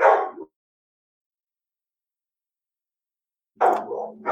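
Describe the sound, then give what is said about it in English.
Pet dogs bark during a call in two loud bursts, a short sharp one and then, after several seconds of silence, a longer run of barking. No one talks over it. “I'm sorry that my dog's barking right now.”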